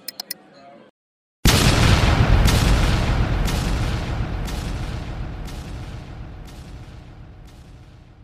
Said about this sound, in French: La bombe de Georg Elsa a fonctionné à la perfection s'est lancée au bon moment.